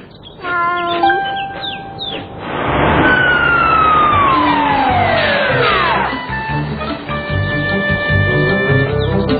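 fire truck siren

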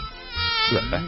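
housefly buzzing

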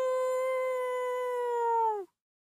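wolf howling

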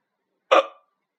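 hiccup

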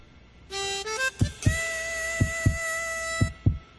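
heartbeat

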